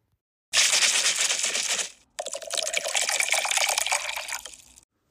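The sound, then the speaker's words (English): Liquid, a white sangria cocktail made with Prosecco and sliced fruit, is poured into a wine glass in two steady splashing pours separated by a brief pause, the second carrying a faint ringing tone as the glass fills. “And then we're going to pour this wonderful drink into our wine glass.”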